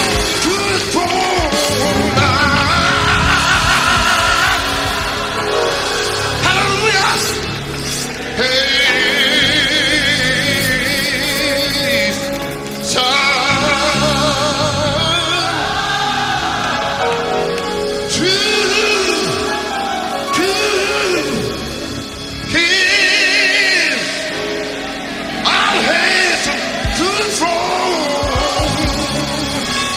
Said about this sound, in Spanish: aplausos para esa media rola medio extraña del coro eclesiástico